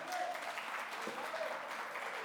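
An audience claps in a steady, dense wash of applause as a woman is called up to give a testimony, holding at an even level throughout, with faint voices and a brief tonal cheer mixed in.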